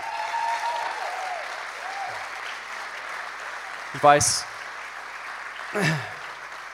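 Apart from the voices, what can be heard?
audience applause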